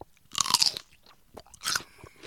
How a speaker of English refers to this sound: a big old stalk of celery. Yeah, nice crunchy celery.